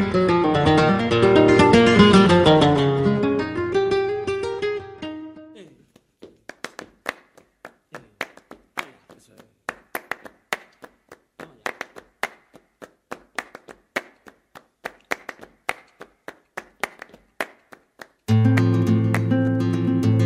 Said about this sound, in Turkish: Şimdi o şarkıyı dinleyip hem sizlere hatırlatalım hem de Flamenco'nun büyüsünü tatmaya devam edelim.